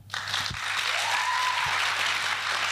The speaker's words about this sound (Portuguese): Portanto, para a verdade, quem é que quer mais a verdade? Aplausos agora.